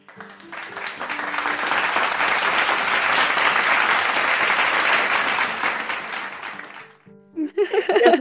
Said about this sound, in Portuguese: Então, a edição colocou palmas.